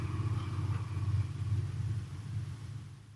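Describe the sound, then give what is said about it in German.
A low, steady engine rumble of a car passing by in a parking lot, throbbing for a few seconds and then fading as it moves away, with no voices. “Ah, ich stehe hier auf dem Parkplatz, deswegen fahren da immer Autos lang.”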